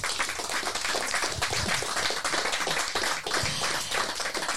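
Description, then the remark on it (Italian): Sustained applause from an audience, a dense wash of many hands clapping at once, steady and fairly loud throughout with no voices standing out. “Danila Russo che ha preparato la sua bellissima introduzione le farei un altro applauso”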